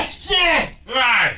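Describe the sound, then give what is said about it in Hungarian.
Two loud sneezes in quick succession, each a sharp breathy burst with a voiced cry that drops in pitch, separated by a brief pause. “Igen, egészségedre.”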